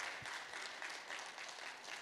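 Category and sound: crowd, audience applause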